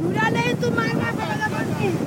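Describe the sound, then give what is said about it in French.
Sea waves wash steadily around women standing in the water as they gather sand in Cape Verde, a continuous rush of surf and wind, with women's voices talking and calling over it. “Elles font un travail éreintant, tu les as filmées, tu es avec elles, au milieu de l'eau, on entend les vagues.”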